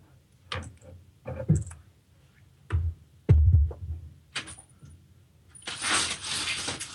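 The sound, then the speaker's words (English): Window blinds are being closed on the eighth floor in Midtown Manhattan: a run of irregular plastic clicks and clatters, ending in a sustained rattling swish as the slats sweep shut. No one speaks. “All right, well, go close the blinds here.”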